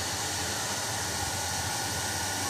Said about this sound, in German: okay, ich kann mit dem Föhn also die Sensoren erhitzen, logisch, klar.